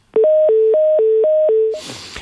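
A loud telephone line tone after a dropped call, alternating rapidly between two electronic pitches for about a second and a half, then cut off by a brief burst of crackling noise.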